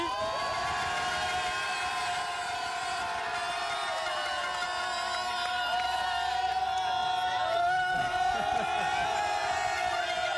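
Rowdy group of about 60 football supporters from Cassel cheering, whooping and shouting together inside their bus, steady loud crowd noise throughout with a faint engine hum underneath.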